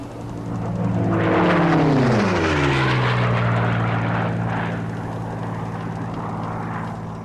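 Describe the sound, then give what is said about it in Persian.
An unidentified propeller airplane drones loudly overhead, its engine pitch sliding downward as it passes, then holding a steady hum as it circles several times above three trading dhows from Dubai, Qeshm and Bandar Kong, sailing on the ocean from Mangalore, India, toward Africa. “روز قبل هواپیمای ناشناسی بالای سرشون چند دوری زده بود”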